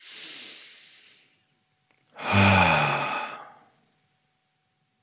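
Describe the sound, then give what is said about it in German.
A person breathes deeply to calm down: a long, airy inhale, a brief pause, then a loud, drawn-out exhale that turns into a voiced sigh, with no other sounds around it. “Und das, das tief atmen.”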